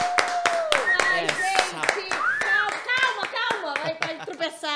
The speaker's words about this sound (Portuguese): Então, já que tem gente aqui, eu quero bater palma pra ela. Fernanda Gentil!